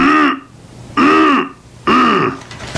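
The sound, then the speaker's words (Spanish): Three loud throat-clearing coughs come in a steady rhythm, each a short, rough, voiced burst with brief quiet gaps between them and no talking. “O directamente nos mintió en la cara cuando dijo que tenía tos.”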